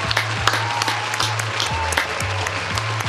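A crowd claps steadily for a few seconds for the host, a dense, continuous patter of many hands at an even loudness, with no voices on top.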